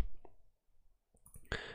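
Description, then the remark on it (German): A single sharp mouse click on a plus button, a crisp tap near the end, preceded by a faint tick and quiet rustling, with no one speaking. “Genau, wir können aber auch erstmal hier nur auf das Plus klicken.”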